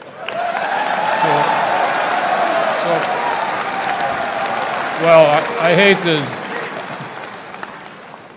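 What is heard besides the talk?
audience clapping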